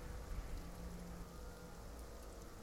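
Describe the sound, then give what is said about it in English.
Steady, dense rainfall pours down among trees with a constant hiss and patter, a continuous wash of drops hitting surfaces, with a faint low rumble underneath and no voices. “It was almost as noisy as the rain now.”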